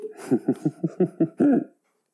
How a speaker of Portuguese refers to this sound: Desculpem, vou tossir. Juro que não é corona.